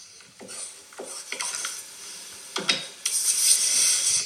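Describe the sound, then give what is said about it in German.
Rolling pin working dough on a board, with several scraping rumbles in uneven strokes, followed by a steadier, brighter rasping rub near the end. No voices. “Ich spiele euch das mal vor, es geht mit Teigrollen los.”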